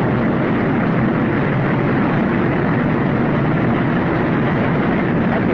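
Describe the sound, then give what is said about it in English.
A heavy industrial charging car in a steel mill rumbles steadily along its rails as it charges the furnaces with manganese and other chemicals, a loud, continuous low mechanical roar with a broad hiss on top and no pauses. “You know, a charging car was coming along.”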